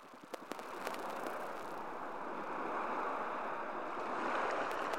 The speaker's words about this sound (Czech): a do toho ještě slyšíme eh, nějaký jakoby šum, eh, šum je tomu řeky nebo moře, nebo vlastně je to takový jako mix, mix zvuku.